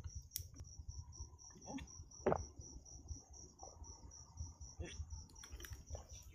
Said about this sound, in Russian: Сверчки на фоне, кстати.